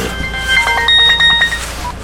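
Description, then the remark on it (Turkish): A mobile phone rings with a bright electronic melody of short, high tonal notes in quick succession, clear over a faint background hum, inside a car stuck in traffic during snowfall, with no one speaking. “Arabanın içinde mahsur kalmış, sinirlerimizi bastırıp cama usulca düşen kar tanelerini izlerken telefonum çaldı.”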